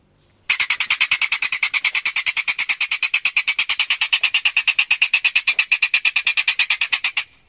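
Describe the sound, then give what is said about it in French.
A polecat's howl: a loud, steady train of rapid, rasping high-pitched pulses repeating evenly for about seven seconds, then stopping abruptly, with no voices. “Ah c'est ça un hurlement de putois.”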